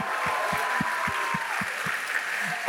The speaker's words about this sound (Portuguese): Nós estamos em 1 de outubro. Dê, dê uma salva de palmas ao mês que está começando.